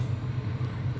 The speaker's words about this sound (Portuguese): o trem está agora neste momento indo em sentido ao centro de Guararema